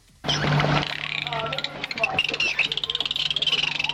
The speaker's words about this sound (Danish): jeg har lige fundet, jeg har lige fundet en, øh, en ægte delfin